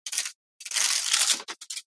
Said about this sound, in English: Uh, okay. Um. Oh, was playing with my parchment paper.